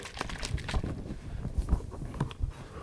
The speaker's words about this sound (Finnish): Tältä se kuulostaa, kun sitä sheikkaa. Myös shampoapullolta.